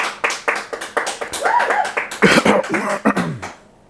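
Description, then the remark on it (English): A short burst of applause from several people on a call who have unmuted their mics to clap for a woman and her husband getting ready to do real estate together: uneven sharp claps overlapping into a dense patter, with a little cheering, stopping abruptly, sounding thin and compressed. “I'm on mute your mics and clap for her and her husband getting ready to do real estate together.”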